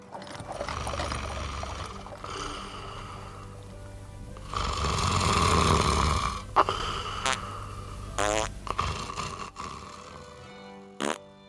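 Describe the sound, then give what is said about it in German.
A man snores loudly in deep, rattling breaths, each snore swelling and fading, with rhythmic thumping and creaking in the background and no talking. “Und kaum geht das Gehoppel weiter, schnarcht der Neue auch schon.”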